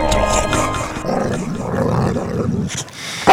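A dog growls in a low, continuous rumble for a few seconds, fairly loud, ending with a brief sharp burst; no one speaks.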